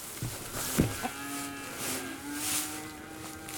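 animal, cows mooing

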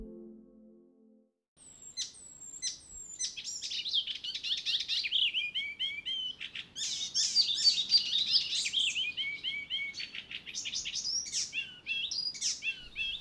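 bird, icterine warbler song

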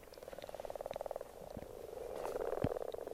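animal, frogs croaking

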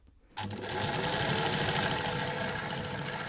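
machine, sewing machines running

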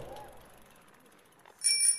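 vehicle, bicycle bell ringing

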